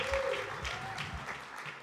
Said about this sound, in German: Dann lass uns mal einen Applaus geben. Danke.